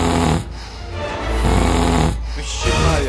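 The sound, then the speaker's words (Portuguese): A person imitates loud snoring, producing about three rough, rasping breaths in a steady rhythm with short pauses between them and no other talk. “O ronco, na verdade, é um aspecto comum no ser humano.”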